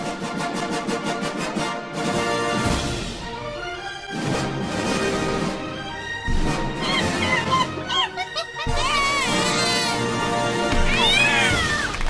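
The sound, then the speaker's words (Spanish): A rapid string of loud comic sound effects: a baby's cry, monkey chatter, cats meowing with sliding pitches, and a burst of applause, each cut sharply into the next with no talking. “¿Te pareció esa bienvenida con bebé, mono, gato, aplauso y, silencio, y incómodo.”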